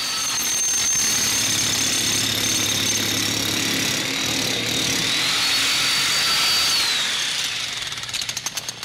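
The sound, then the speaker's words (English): Loud, dense industrial noise music made with power tools, anvils, sledgehammers, breaking glass and banged lead pipes and sheet metal: a grinding power-tool roar with a high whining tone that bends upward, a low droning hum beneath, and harsh metallic clatter that breaks into rapid stuttering pulses at the end. “They made their music with anvils, sledgehammers, by breaking glass and banging lead pipes and sheet metal, and of course, power tools.”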